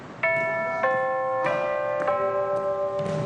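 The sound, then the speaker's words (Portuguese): A fire station bell at a fire brigade barracks in Brazil rings at eight o'clock sharp in a series of about five clear, evenly spaced strikes, each tone lingering and overlapping the next, with no voices. “Oito em ponto, toca o sino do quartel.”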